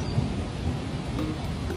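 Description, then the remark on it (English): A deep, steady rumble of thunder from a lightning strike over water rolls through with a broad hiss layered over it, loud and continuous without any sharp crack, and no voices. “That's a big lightning strike there for sure.”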